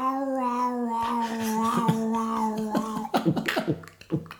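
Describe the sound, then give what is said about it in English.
A person imitates a cat about to cough up a hairball: a long, wavering, moaning yowl that breaks into a series of choppy, retching hacks. It's fairly loud, with no other talking. “it is our parents' cat Charles at 5 a.m. when he's about to hawk up a hairball”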